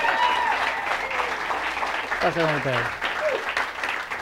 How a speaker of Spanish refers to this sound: Un aplauso bien, pero ¿qué?